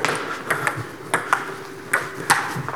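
A table tennis rally at set point with the score 5-4: crisp, high ticking pops of the ball off paddle and table, about six sharp hits arriving in quick pairs at a steady rhythm, with no voices.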